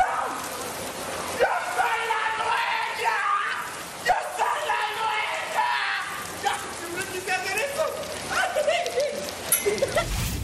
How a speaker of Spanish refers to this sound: aquí en Ciudad de México cayó un llovidón.